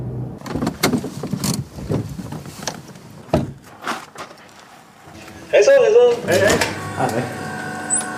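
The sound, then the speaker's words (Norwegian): Heavy metal doors open and close at a prison's security checkpoints on the way to the visiting room: a series of hollow clunks and bangs, then a loud grinding metallic screech as a door slides shut, with muffled voices in the background. “sluses gjennom sikkerhetskontroller og flere tunge metalldører før jeg kommer inn til besøksrommet”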